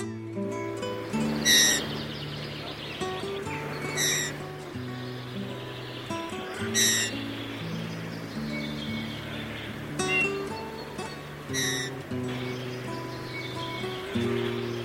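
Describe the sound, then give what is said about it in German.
Eurasian bullfinch song: short bursts of bright chirping notes repeat every few seconds over a steady, low, droning tonal background that changes pitch now and then. “Das war der Gimpel.”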